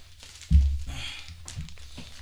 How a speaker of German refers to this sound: So, raschelt schön, ne? Das ist. Äh, Moment mal. So. Maximo. Maximo. Strong and Coarse. 100 Kaffeepads.